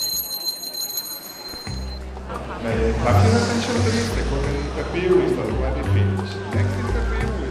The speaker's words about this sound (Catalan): La campaneta marca el canvi de parella. Uns 200 turoperadors d'una quarantena de països han visitat Barcelona en el certamen Bai Catalunya